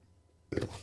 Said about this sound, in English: Oh, burped right into the right into the mic. I don't know how coffee makes me burp.